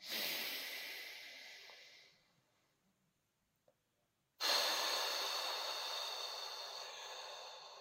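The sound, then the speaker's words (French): A long, airy, deep breath drawn in, then a pause of near silence, followed by a louder, rushing exhale through the mouth that slowly fades. Breathy, with no talking. “Simplement, on inspire profondément et on expire par la bouche. En faisant un peu de bruit, effectivement.”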